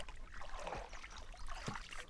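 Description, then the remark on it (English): Fast-flowing, deep river water in June rushes steadily and continuously at a moderate, fairly quiet level, with a couple of brief splashy bursts rising out of the constant wash. “The water's moving pretty fast.”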